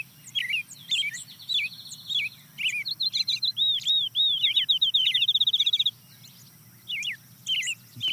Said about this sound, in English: the next bird to join is a field sparrow. That trill is the field sparrow? That's the field sparrow.